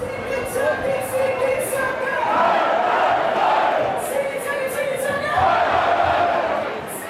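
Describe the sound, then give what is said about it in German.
A rowdy crowd packs an Oktoberfest beer tent, a dense roar of many voices with loud shouts and chanted singing swelling throughout, punctuated by sharp bursts of whistles or cries. “Ihr merkt es, es ist totales Chaos im Zelt.”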